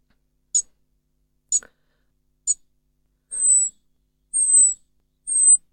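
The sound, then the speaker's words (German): A European robin's aerial-predator alarm: three thin, very high drawn-out seee whistles, evenly spaced and clear, following three short sharp ticking calls. No voices. “Das ist wieder der Luftfeind gewesen.”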